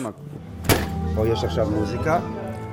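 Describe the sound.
A heavy door opens with a sharp clunk, revealing the busy murmur of many voices echoing through a large, reverberant hall that continues steadily afterward.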